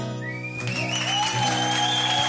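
Audience applause with shrill whistles breaks out as the last sustained notes of an acoustic song ring on, the clapping and cheering staying steady and fairly loud to the end.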